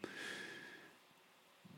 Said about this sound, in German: Während mein Hund im Hintergrund zufrieden schnarcht